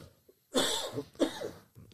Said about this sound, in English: I'm going yep. to have a cough here, mate. Yep. No, you can have a cough.